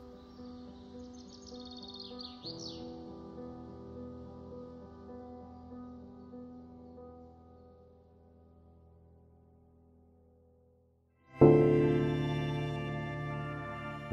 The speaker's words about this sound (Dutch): De stalen graflift, gecamoufleerd met dennetakken, piept en knarst.